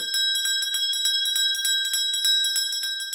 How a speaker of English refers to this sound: One mid-Sunday afternoon, the bells shattered the normal Sabbath quiet.